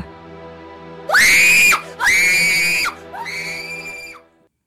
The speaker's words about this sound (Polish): Przyjaciele szli dalej, a ja stałem trzęsąc się ze strachu. I wtedy usłyszałem przeciągły krzyk, przeszywający powietrze.